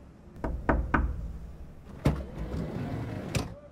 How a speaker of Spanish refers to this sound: No tenía cita, así que golpeó la puerta tímidamente.